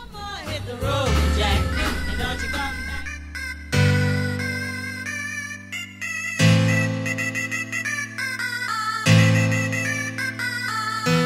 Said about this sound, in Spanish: vamos a seguir compartiendo buena música que suena de esta manera.